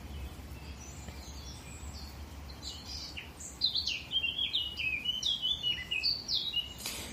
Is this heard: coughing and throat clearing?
no